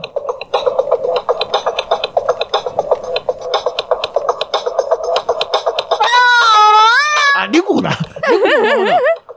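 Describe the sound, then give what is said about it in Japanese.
An electronic toy instrument, an Otamatone, set to a meowing cat voice plays a fast, choppy run of notes, then sustained wobbling, sliding tones like drawn-out meows, loud. “猫のままだ。”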